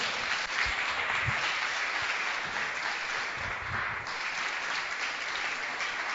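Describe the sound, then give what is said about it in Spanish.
An audience applauds the Lord during a church sermon, a steady, dense wash of clapping from many hands that holds at an even loudness for several seconds with no talking over it. “Vamos, dele su mejor aplauso al Señor.”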